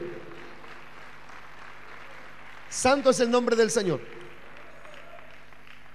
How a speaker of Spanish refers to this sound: Gloria al nombre del Señor. A su nombre. Un aplauso grande para el Señor.